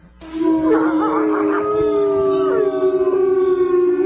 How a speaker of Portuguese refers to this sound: algo parecido com um uivo de um lobo fez-se ouvir no terreiro.